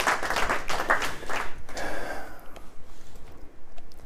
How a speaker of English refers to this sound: It always feels weird when people clap for me.